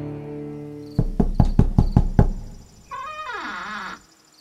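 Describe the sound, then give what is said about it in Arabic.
Loki knocks six quick, evenly spaced times on the wooden door of Brokk's workshop, loud, followed by a brief wavering, squeaky tone that bends downward before fading out. “ثم رجع لوكي لصورته الأصلية ووضع نفسه خارج باب ورشة بروك وكأنه عاد من أزغارد كما اتفقا فطرقا على الباب”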